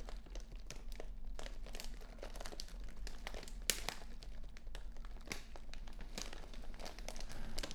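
Continuous crinkling and crackling, like material being crumpled between the fingers, with irregular sharp crackles over a steady low hum. No one speaks.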